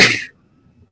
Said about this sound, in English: Bless you.